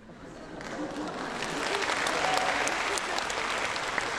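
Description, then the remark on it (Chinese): An audience breaks into sustained applause, a dense wash of clapping that swells after the first second and holds steady and fairly loud throughout, with no talking over it. “我相信鼓掌的朋友们都跟我当年有同样的震撼”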